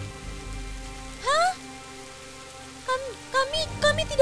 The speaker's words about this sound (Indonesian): Sekarang lihat apa yang kalian lakukan. Kalian membuat hujan turun di daerah lembah yang sering banjir.